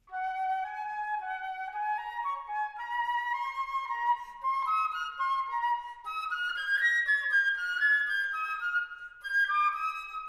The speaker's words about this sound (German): Und richtig ist Möglichkeit 2. So klingt eine Querflöte. Sehr, sehr schön die Querflöte.